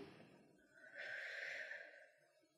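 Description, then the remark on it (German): A single slow, drawn-out inhale through the mouth for a count of three, a calming breathing exercise, swelling to a louder airy rush in the middle before easing off. No one speaks. “Also wir atmen auf 3 ein”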